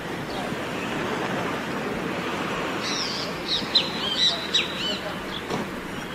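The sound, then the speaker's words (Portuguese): Birds chirp in short bursts partway through, over a steady rush of outdoor noise like wind or traffic in an open town square, in cold weather with the sun high behind a layer of clouds. “junto aos pássaros, o sol está bem alto, mas realmente é nuvens.”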